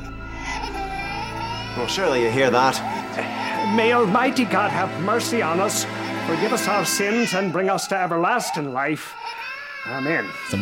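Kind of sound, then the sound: human body sound, baby crying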